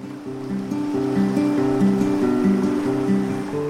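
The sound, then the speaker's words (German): Ocean waves slosh and wash steadily, a continuous watery rush layered with soft, sustained musical tones, with no voices. “Denn wo heute der Himalaya oder die Dolomiten in den Himmel ragen, sind einst tatsächlich Wellen geschwappt.”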